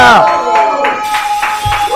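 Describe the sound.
An audience claps in a steady, rhythmic beat, about three claps a second, to welcome a guest, while voices cheer and call out over the top at a fairly loud level.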